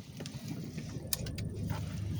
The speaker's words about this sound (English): And let me move this car.